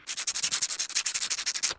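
A mouth-made imitation of brushing teeth: rapid, steady scrubbing strokes, about a dozen bristly hissing swishes in quick rhythm, fairly quiet with no voices.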